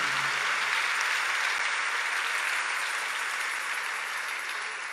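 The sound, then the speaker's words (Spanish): An audience applauds steadily for the full length, a dense, even wash of many hands clapping at constant loudness, with no voices heard over it. “Se está dando un aplauso, no te está saliendo.”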